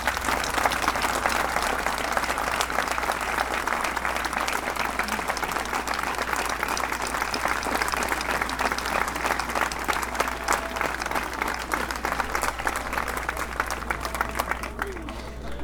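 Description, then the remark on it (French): Sustained applause from a large crowd at a demonstration over the Ford plant in Blanquefort, France, a dense steady clatter of many hands clapping at an even loudness throughout, with a low constant hum underneath. “Et pour cela, et pour même le travail d'aujourd'hui avec une manifestation montée en, en catastrophe et qui s'est magnifiquement bien passée, je voudrais vous applaudir et nous non plus, on ne lâchera rien.”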